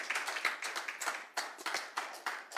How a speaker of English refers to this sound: can i just give you a hand clap for coming to church when you're drained thank you so much for being here